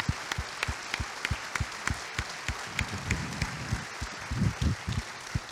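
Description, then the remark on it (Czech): An audience applauds at the close of a discussion with the Czech and Slovak prime ministers, dense overlapping claps forming a continuous bright patter with regular stronger beats, as if some clap in rhythm, swelling slightly near the end. “Aplaus.”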